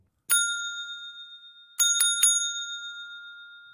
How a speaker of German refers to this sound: Die Leinen waren markiert und die Schellen tönten verschieden. So konnten alle unterscheiden, aus welchem Raum gerufen wurde. Einige der Angestellten hatten einen eigenen Rhythmus und Ton.